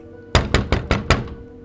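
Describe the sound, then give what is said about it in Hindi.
Five quick, evenly spaced knocks on a door, sharp, rapping in a steady rhythm before fading into a quiet hum. “ये दस्तक किसके लिए था excuse me did you here that knock don't worry ये दस्तक आपके लिए नहीं जिंदगी के लिए है”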